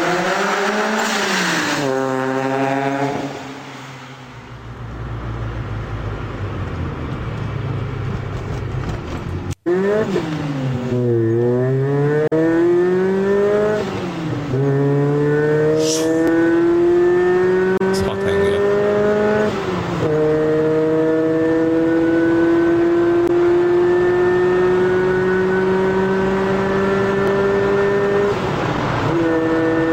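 A multi-cylinder car engine, being warmed up for a long time, revs repeatedly, its pitch sweeping up and down through several throttle blips before climbing in one long, steady rise. Loud, with no talking.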